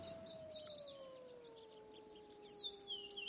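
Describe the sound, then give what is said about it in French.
A red wolf's long, steady howl slowly sinks in pitch across the whole stretch, while birds twitter and chirp in quick bursts above it, all fairly faint; recorded on a June morning in 1993 near the Arctic Circle. “On y entend une paruline à calotte noire, une buse battue, un loup rouge,”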